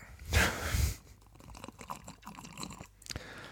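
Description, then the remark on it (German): A man takes a noisy slurp of hot coffee drawn through the lips, about half a second long, followed by quieter swallowing and small mouth clicks with no talking. “Oh, ja, Trotzdem ja. schlürft er.”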